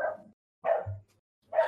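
A dog barks three times in sharp, separate bursts spaced about a second apart, fairly loud, with a brief low rumble after the second bark and no talking.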